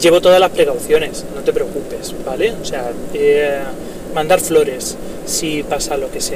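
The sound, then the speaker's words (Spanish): A steady low rumble of car interior road noise, recorded while driving, runs beneath a man talking, a constant hum that never drops out. “Esto es un episodio a la marcha, a la marcha porque si oyes un ruido de fondo es porque voy conduciendo.”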